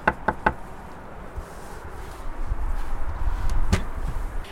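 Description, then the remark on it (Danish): Three quick, sharp knocks on the door of a house in Lyngby, followed a few seconds later by one more single knock, with a low outdoor rumble in the background and no talking. “Jeg prøver at banke på her.”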